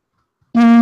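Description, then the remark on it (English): After a brief silence, a loud, buzzy electronic alert tone cuts in abruptly and holds steady, alone: a phone sounding off with incoming messages. “My phone hasn't stopped.”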